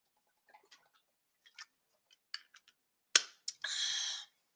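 Someone takes a drink of water: faint scattered mouth clicks and small sips, then a couple of sharper gulps followed by a short, breathy exhale. No one speaks.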